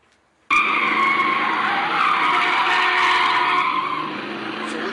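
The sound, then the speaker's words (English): A sustained, loud tire screech as a pink limousine speeds around a corner, almost hitting traffic, in the Ice Cube movie Friday. It starts abruptly and holds steady for several seconds with a revving engine underneath, prominent with no talking. “a car speeding around the corner, almost hitting traffic. It's a pink limousine, and in it is the iconic pimp Ice Cube, In Ice Cube movie Friday, Pinky.”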